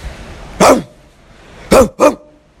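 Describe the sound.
A man imitates a dog, letting out three loud barks: one single bark, then a short pause and a quick pair. No other talking.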